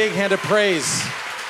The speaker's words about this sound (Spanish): Amén. demos fuertes aplausos al Señor en esta hora.